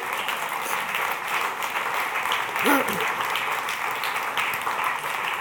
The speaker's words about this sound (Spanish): Dígale amén, denle otro aplauso, Señor, ¿cierto?